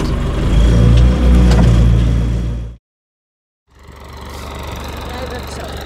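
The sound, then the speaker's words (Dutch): A tractor engine rumbles loudly with a steady low, throbbing drone as it drives along a road lined with reeds about one and a half to two meters tall and stops at a mowed entrance to a meadow; it cuts out abruptly for about a second of silence, then returns slightly quieter and steady. “Ik ben nu eh, uit de trekker gestapt.”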